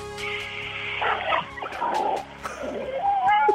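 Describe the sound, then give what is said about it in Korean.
A voice, in a radio impression contest, imitates the sounds of a large supermarket's underground parking garage: a continuous run of strained, rasping vocal noises that ends in a high, drawn-out squeal like screeching tires. “대형마트 지하주차장 소리.”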